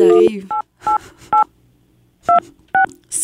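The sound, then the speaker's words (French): A quick series of five telephone keypad dialing tones, short clean beeps at an uneven pace, loud, with a brief burst of voice at the start. “Je, l'appelle là.”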